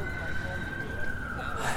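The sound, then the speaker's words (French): An emergency siren, police or ambulance, holds a steady, slightly falling wail over the dense rumble of city street traffic in New York, near Central Park, persisting throughout the short moment. “On entend les sirènes de police ou d'ambulance.”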